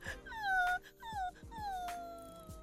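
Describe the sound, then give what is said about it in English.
A person imitates a crying dog with three high, wavering whimpers that slide downward, fairly loud, with faint low thumps underneath and no speech. “That was really? a good crying dog.”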